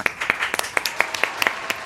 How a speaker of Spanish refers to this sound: Aplausos, por favor.